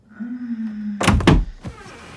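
A bedroom door at the end of a hallway is flung wide open quickly, with a creaking hum, then a couple of loud wooden knocks and rattles as it hits fully open, followed by a softer settling thud.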